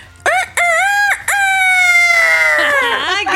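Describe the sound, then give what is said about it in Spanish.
A person imitates a rooster's crow, as done when playing farm with children, a loud cock-a-doodle-doo in a few sharp rising bursts, then one long drawn-out wavering note that trails off at the end. “Como cuando hago cosas con los niños que, vamos a la granja, entonces yo, mi personaje favorito es el gallo. El gallo. Entonces yo le hago...”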